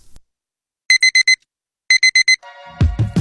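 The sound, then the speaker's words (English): A digital alarm clock beeps loudly, two bursts of four quick, shrill beeps with a short pause between, followed by a lower buzzing tone and a few thuds. “There it is! The sound signaling your morning has begun.”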